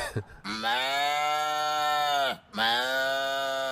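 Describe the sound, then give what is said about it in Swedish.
A voice imitates a farm animal with two long, loud, drawn-out lowing calls, the second following right after a brief breath, each sagging in pitch at the end. “Han kan också göra någon jävla get eller något. Jag vet inte, han, han preciserar inte vad det är, men man hör ju att det är ett jävla gårdsdjur.”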